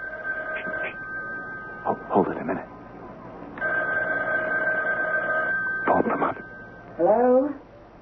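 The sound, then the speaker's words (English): A telephone handset is picked up on an upstairs landing with a couple of clattering knocks, a steady electronic dial tone hums in between, and a short yelping sound breaks in at the end. “she's picked up the phone on the upstairs landing.”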